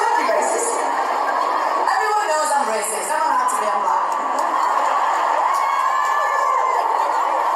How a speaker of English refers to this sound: Yeah, so in there, you might not be able to pick it out because of the crowd noise